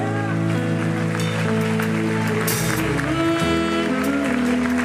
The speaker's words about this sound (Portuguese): que você aplaude esse Deus maravilhoso?